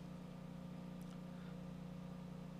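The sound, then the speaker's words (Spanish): A power generator drones steadily in a low, constant hum with no breaks or changes in pitch, filling the background at a moderate level with no voices present. “Y hablando de energía eléctrica, si oye un pequeño zumbido, es que estoy trabajando con planta, porque esta mañana un sopetazo explotó”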